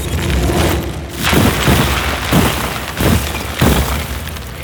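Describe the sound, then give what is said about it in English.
A solid block of ice, about 20 by 20, being shattered by the superhero Jackhammer: about five loud, crunching cracks in an uneven rhythm over a steady, heavy low rumble, with no voices. “Cube looks to be solid ice, about 20 by 20 best superhero to cut through this is probably Jackhammer.”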